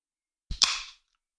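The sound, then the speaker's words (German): A bottle of Radler made with lemon juice being opened: a soft low knock, then a sharp pop as the cap comes off, followed by a brief fizzing hiss that fades within half a second. No talking. “Ähm, ich öffne das jetzt auch mal.”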